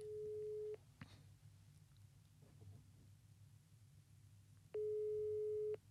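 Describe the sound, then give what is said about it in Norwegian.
A phone ringback tone on an outgoing call sounds twice, a steady electronic beep about a second long, then a few seconds of quiet line with faint background noise before the next beep. “Vi går videre, og vi skal ringe til CP.”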